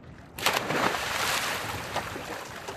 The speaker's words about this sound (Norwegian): Og her hører vi også vinden, for den var veldig vesentlig i går. Ja, det blåste godt. Det var fint vær. Altså, det var eh, lett lettskya og pent vær, men ganske mye vind.